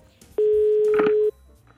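A single steady electronic telephone dialing tone sounds loud for about a second as a person phones their chef, then stops, leaving only faint background noise.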